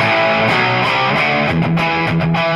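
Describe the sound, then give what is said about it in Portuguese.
A loud, heavily distorted electric guitar played through a Plex amplifier picked up by a microphone, late at night, with the amp itself at low TV-like volume in the room. Sustained chords and a few rhythmic note changes fill the whole clip with dense, saturated tone. “Se eu desligar o volume, o mic do amp, ó como que tá o amp, ó.”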